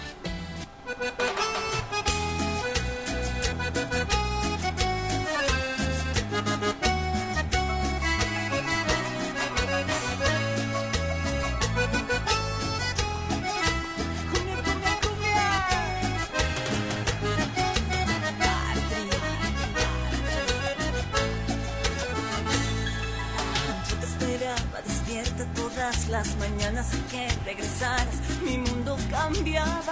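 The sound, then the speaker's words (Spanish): A full, upbeat pop song plays at steady volume for the whole stretch while people dance, with a driving beat, bright layered instruments and a strong low end suited to dancing. “…, vamos a escucharla ahorita mientras bailamos.”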